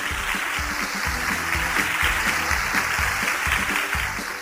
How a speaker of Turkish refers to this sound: Evet doğru cevap mı? Evet. Alkışlayalım o zaman.